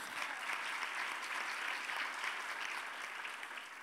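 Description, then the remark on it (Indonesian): Steady applause for God from a large audience during a sermon fills the space, a dense wash of clapping hands that holds at an even level for several seconds with no voices standing out. “Berikan tepuk tangan bagi Tuhan kita.”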